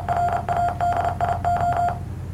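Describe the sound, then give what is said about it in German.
A steady electronic tone from an online Morse code translator website keys on and off in Morse code, a run of short and long mid-pitched beeps in uneven groups over a low background hum, with no voices. “Es ist ein Morse Code Translator von auf einer irgendeiner Sa beliebigen Seite”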